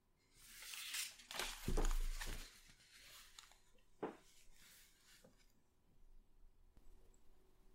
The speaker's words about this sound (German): Wir hören nur das Atmen wieder und das Klappern des Bestecks.